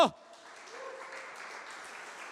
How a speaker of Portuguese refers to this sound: Deus vai te dar uma colheita extraordinária. E se você quer isso, aplauda Jesus bem alto.